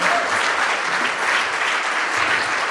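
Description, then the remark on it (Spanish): An audience bursts into steady, sustained applause for God during worship singing, a dense wash of many hands clapping at an even loudness throughout, with no individual claps standing out. “Dale un aplauso al Rey.”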